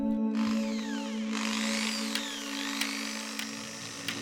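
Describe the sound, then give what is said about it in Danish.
A steady mechanical power-tool whine with a low hum runs throughout, with sharp clanks and knocks recurring every second or so, from craftsmen working outside the windows of a living room in Østerbro. “Der er håndværkere uden for vinduerne her, der stiller af, så kravler de rundt på.”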